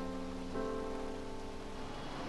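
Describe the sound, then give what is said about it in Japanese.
Steady rain patters continuously outside a taxi stuck in a traffic jam, a dense even hiss throughout, with a faint sustained tonal hum running beneath it. No one speaks. “渋滞ダメだな動かねえよ雨だしああ、今日は五頭日だから、混んじゃってどうにもなんね。”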